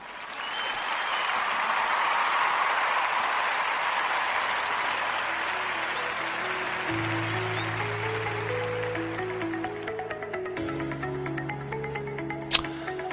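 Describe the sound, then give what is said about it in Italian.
An applause sound effect, steady and dense, fills the opening, then a short theme jingle rises beneath it, with a bouncing bass line and stepping melody notes that take over as the clapping thins, ending on a sharp accent. “Quindi con questo mh, mm, vado in applausini e in sigla e poi ai saluti.”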